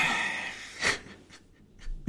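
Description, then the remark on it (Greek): A heavy, wheezing breath, raspy, with a loud rush of air midway, followed by a few softer gasping breaths trailing off. “Ήταν η ανάσα μου τέτοια.”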